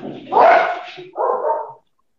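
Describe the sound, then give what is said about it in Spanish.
Two loud barks from a dog kept indoors, the first longer and harsher, followed quickly by a second shorter one, with nothing else around them. “Hola, güey, los perros, ahora. es que ahora los, tengo acá adentro, güey.”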